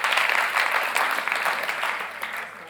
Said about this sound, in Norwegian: Jeg vet ikke hva det betyr, men det er i hvert fall utrolig verdt en applaus. altså. Ikke en skikkelig applaus, men en sånn golfapplaus sånn som Salt 16 gir fra seg.